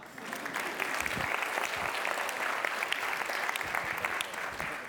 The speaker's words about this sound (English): And since this is really a science and cooking class, every time we see equation, we clap.